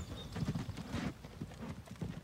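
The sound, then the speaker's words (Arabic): Horse hooves of horse-drawn carts clip-clop steadily along a hard city street full of pedestrians, a brisk run of sharp, evenly spaced knocks with a faint background hum and no talking. “شوارع المدينه صعبه وخطيره مليئه بالماره والعربات التي تجرها الخيول”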